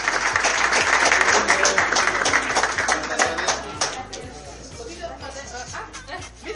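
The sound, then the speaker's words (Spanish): A crowd applauds the second-prize winners of the Desafío 24 contest with dense, steady clapping that stays loud for a few seconds, then thins and fades as scattered voices and a few whoops carry on beneath it. “Y los despedimos con un fuerte aplauso.”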